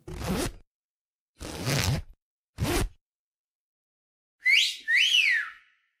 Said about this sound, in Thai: Do you hear that? What's that noise? Who is it? Well, I don't know who that is, but he's whistling. Or it could be a she, I don't know.